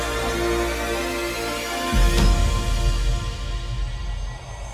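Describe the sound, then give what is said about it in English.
A deep, steady low-frequency drone hums for about two seconds, then shifts into a rumbling, throbbing bass texture after a soft thud, with no voices present. “Since it is not consciously perceived, it can make people feel vaguely that supernatural events are taking place. Such tones cease being heard as a musical tone unless they are boosted greatly in volume.”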